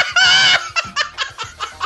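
A chicken lets out a loud, drawn-out squawk, then a quick run of five or six short, choppy clucks in an uneven rhythm, close up with no one talking.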